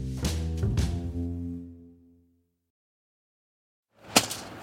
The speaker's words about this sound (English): Hear that? It's the sound of someone whacking the ground with a rake. Specifically, they're beating around the bush